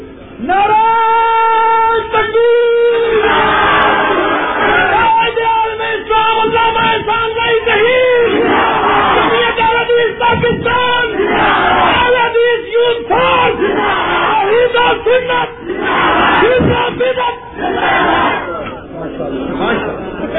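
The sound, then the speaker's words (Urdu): A cleric's loud, impassioned voice shouts religious slogans with fervour in a strained, harmonically rich chant, with a crowd roaring and yelling back continuously, intense throughout. “غلطی لگ جاتی ہے مولوی صاحب بھی جذبے میں ناری مار رہے تھے”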